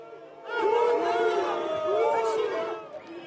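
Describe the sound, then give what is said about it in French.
A crowd of protesters at a demonstration against pension reform boos police units. Many voices rise together into a loud, sustained jeer that holds for a few seconds before starting to fade. “Bien souvent, sous les huées des manifestants.”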